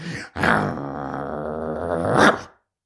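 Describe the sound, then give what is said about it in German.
A human voice imitates an angry dog's growl, showing how fiercely it can snarl: one sustained, rumbling snarl lasting about two seconds, fairly loud, swelling slightly toward the end before cutting off. “Ich zum Beispiel möchte Robert Rottweiler einmal so richtig beeindrucken, wie böse ich knurren kann.”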